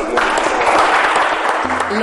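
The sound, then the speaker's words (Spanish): A crowd claps steadily and loudly, a dense wash of hand claps filling the whole moment, with a faint voice or low tone surfacing near the end. The applause is for the people of Silao de la Victoria, during La Hora Nacional. “Yo quiero pedirte un aplauso para la gente de Silao y gracias también por”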